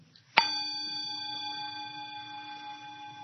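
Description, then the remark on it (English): A single meditation bell is struck once, a sharp bright strike followed by a long, steady ringing tone with layered overtones that sustains evenly without fading much. Nobody speaks. “When you're just with the experience, There's no bell, there's no ear, there's no inside, there's no outside, there's just hearing.”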